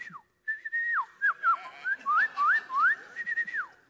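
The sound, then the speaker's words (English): A person whistles an imitation of bird noises, a string of clear rising and falling chirps and warbles lasting a few seconds with short gaps between phrases. “Let's see if I can make a bird noise.”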